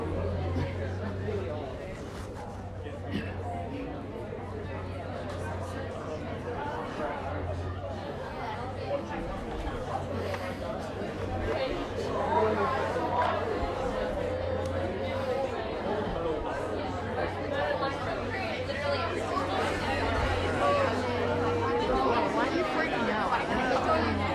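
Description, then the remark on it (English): Audience members in a room chatting in pairs, telling one another what pulls them through in life, in many overlapping conversations, a steady murmur of babble with no single voice standing out, holding a fairly even level throughout with a low hum underneath. “so what's the thing that pulls you through tell the person next to you i'd love to hear from you in a moment but first of all tell one another what is the thing that pulls you through in this life”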